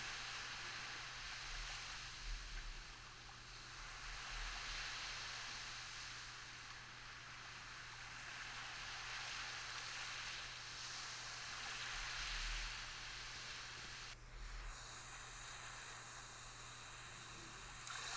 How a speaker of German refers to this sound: Du konzentrierst dich jetzt ganz genau auf das Geräusch der Wellen.